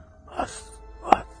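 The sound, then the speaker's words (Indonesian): A voice imitates the angry, aggressive hiss of a small, young, jet-black cobra-like snake made when a broom was pushed toward it: two short, breathy bursts about half a second apart, the second sharper and louder, with no talking around them. “Dan saat saya eh, menyodorkan sapu, dia berbunyi kayak ular kobra itu biasanya bunyinya kayak”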